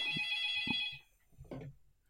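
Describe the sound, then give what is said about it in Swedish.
An old landline home telephone right behind the speaker rings with a steady electronic trill that cuts off after about a second, followed by a few faint knocks and rustles. “Oj, en gammal telefon. Ja, här har de hemtelefon vet du.”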